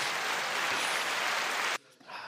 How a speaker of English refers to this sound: do you have a clap button on there? Oh yeah, I do. no, that's the wrong one. Thank oh, that crowd went wild. Thank you very much.